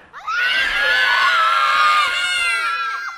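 A crowd of children and adults, asked during a sermon to shout as loud as they can on a count of three, yells and screams together at full volume, a dense, high-pitched roar of many voices that rises suddenly and holds loud for about three seconds before easing slightly.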